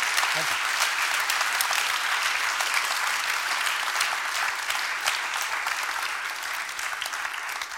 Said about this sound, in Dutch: Ik wil u allen heel hartelijk danken voor het komen. En ik wil graag een hartelijk applaus voor de sprekers van vanavond.